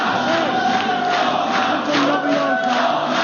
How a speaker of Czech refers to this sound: tak představují si to správně, že ve štábu občanské platformy Donalda Tuska eh, při těch volbách nebo při tom sčítání hm, zavládl jásot oslavy? Ano, tam ty reakce na ty předběžné výsledky voleb byly velmi bouřlivé.